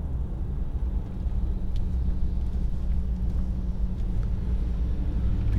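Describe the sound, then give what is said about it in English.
A steady, low rumble of road traffic fills the whole stretch, engines droning continuously at moderate loudness with no distinct pauses and no voices. “Sorry, I got a lot of traffic I have to pay attention to right now.”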